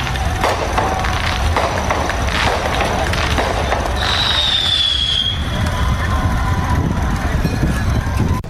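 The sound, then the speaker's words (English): Fireworks set off by people celebrating go off outdoors in a rapid string of loud bangs and crackles, with a shrill whistling rocket streaking through midway and a noisy crowd hollering and murmuring beneath. “People are shooting off fireworks to celebrate.”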